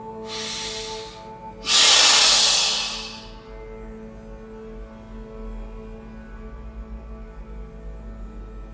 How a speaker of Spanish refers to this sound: Con la cabeza erecta tomo una inhalación corta por la nariz, exhalo suavemente por los dientes. Tomo otra inhalación corta y exhalo con vigor.